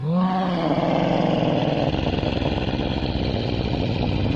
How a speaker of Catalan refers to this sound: La bèstia va corejar el seu crit amb un grunyit, però inesperadament va donar un grunyit i va emetre un planyívol udol de dolor.